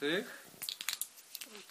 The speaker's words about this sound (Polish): Odgłos znany przy otwieraniu win do 30 zł.